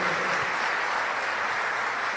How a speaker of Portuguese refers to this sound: Forte salva de palmas para esse pessoal.